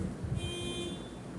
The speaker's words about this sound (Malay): ada bunyi horn eh. bunyi horn ni alam fighter sebab aku kat tingkap ni nak dapatkan vibe hujan si uyui tu kan bunyi bunyi ambient tu atmospheric ni bunyi sound daripada noise daripada hujan tiba-tiba ada bunyi kereta jiran